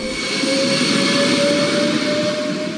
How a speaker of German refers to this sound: 27 Nahverkehrszüge mit Wasserstoff angetrieben und bis zu 140 Stundenkilometer schnell. Die Züge sollen auf den Taunusbahnen Triebwagen ersetzen, die bisher mit Diesel fahren und deshalb CO2 ausstoßen.